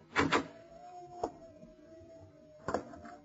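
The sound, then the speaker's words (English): In a Shadow radio drama, a door handle rattles twice as someone tries the door, a single click follows, then after a pause a latch clatters as the door opens, with a faint steady creak-like tone underneath. No talking. “Try the door, Lamont.”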